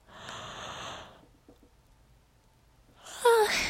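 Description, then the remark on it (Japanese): A breathy inhale followed by a pause, then a drawn-out voiced yawn with a gliding, groaning pitch near the end. No other voices or sounds. “あこうやって あくびでしたけど”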